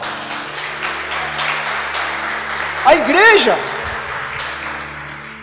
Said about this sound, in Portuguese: Aplauda o Senhor, amados.